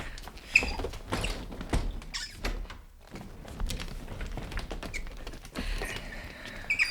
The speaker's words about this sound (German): Na, dann komm mal mit in die Küche. Wärst du so lieb, meinen Rollstuhl zu schieben? Gar kein Problem.